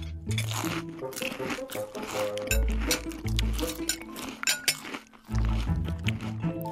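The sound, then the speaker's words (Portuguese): Eating sounds: crunchy bites of toast with scrambled eggs mixed with repeated light clinks of cutlery against a plate, busy and continuous over a low musical backdrop. “Comeram, comeram”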